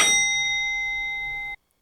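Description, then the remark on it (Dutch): A telephone rings once with a bright, bell-like electronic tone that holds steady for about a second and a half, then cuts off abruptly into silence. No one speaks. “we gaan snel naar... de telefoon kennelijk.”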